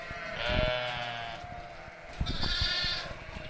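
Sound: sheep bleating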